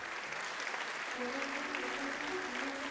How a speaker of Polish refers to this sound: Publiczność szaleje, krzyczy i bije brawo.